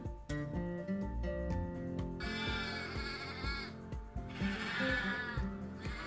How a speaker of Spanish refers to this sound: Entonces llegaron hasta el charquito dos ovejas lanudas charla que te charla.